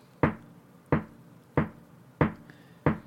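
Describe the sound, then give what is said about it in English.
Someone imitates a heavy drip from an old, slightly misaligned rain gutter outside a bedroom window when it rains: five loud, evenly spaced thunks, each sharp and quickly fading, repeating at a steady, slightly slow pace with no talking. “there's a drip, and it sounds like this.”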